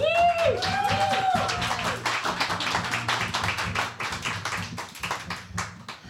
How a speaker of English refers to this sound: All right. Please give a really big, warm round of applause